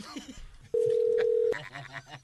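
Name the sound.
telephone call tone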